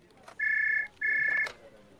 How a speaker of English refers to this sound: Someone picked up on the first ring.